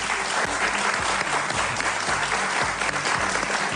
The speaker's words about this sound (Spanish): Un aplauso